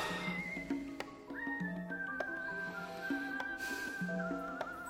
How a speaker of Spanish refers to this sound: ¿Cómo tenéis ganas de tamborilear y silbar, por Dios?